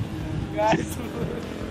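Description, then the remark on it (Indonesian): A heavy truck rumbles past, its low engine drone steady and loud throughout, with a brief high squeal cutting in partway through. “truk lewat truk lewat”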